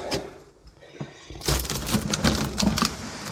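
A few soft clicks, then a burst of rapid, sharp clicking and rattling as sliding doors, fitted throughout a house by a previous owner, are worked, the clatter continuing busily to the end.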